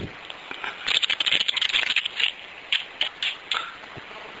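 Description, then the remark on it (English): Tarot cards being shuffled: a dense, papery flutter of quick crisp clicks lasting about a second and a half, then several shorter separate riffles. Fairly quiet, with no voices. “Let, let me shuffle the tarot cards.”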